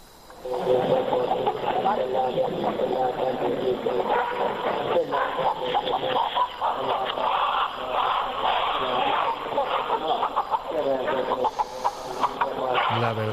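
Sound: chicken clucking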